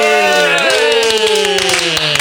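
Several people clap their hands in a quick, steady run, loud, while voices hold sustained, drawn-out tones over the applause.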